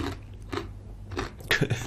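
Close-up crunching of a crispy snack being chewed, with several sharp, crackly bites spaced irregularly, the last ones louder and more clustered. No one speaks.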